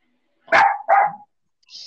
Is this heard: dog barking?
yes